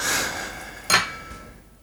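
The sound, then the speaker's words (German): A short hiss of air as a screw cap is twisted off a bottle, followed by a brief sharp click. The sound is fairly quiet, with no voices. “Naja, gut, das ist jetzt ja auch kein Korken. Das ist ein Schraubverschluss.”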